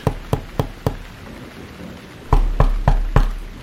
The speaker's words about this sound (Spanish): En una noche lluviosa, alguien llamaba a la puerta del padre Gabriel.